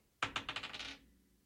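Dice clatter across a hard surface in a quick burst of sharp clicks that bounce, rattle and speed up before settling, fairly loud, with no voices.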